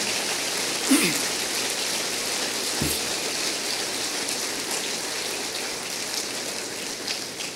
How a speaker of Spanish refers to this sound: Esto merece otro aplauso para el Señor. Amén.